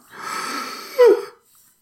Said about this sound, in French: je, prends une grosse inspiration.